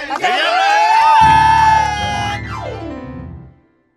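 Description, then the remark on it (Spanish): A crowd cheers loudly, with rising whoops and shouting voices blending together for about three and a half seconds before cutting off abruptly. “Un aplauso para ellos, ¿eh?”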